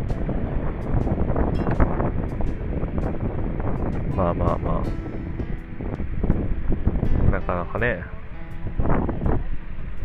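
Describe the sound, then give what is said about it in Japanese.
Outdoor bus station ambience: steady, rumbling wind buffets the microphone throughout, with a dense wash of background noise and occasional brief tones, while a man talks casually over it. “で、今ね、バスステーションにいるけど、うタクシーの運転手さんが何人かいてね、必死に勧誘してこようとするっていう。”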